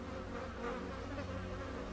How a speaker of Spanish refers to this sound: Un segundo en el que solo se escuchaba el zumbido de las moscas.